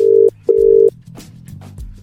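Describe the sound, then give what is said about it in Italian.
An outgoing phone call to London ringing: two loud, steady electronic beeps in quick succession, like a double ring pattern, followed by quieter background noise and faint clicks. “Squilla diverso a Londra al telefono.”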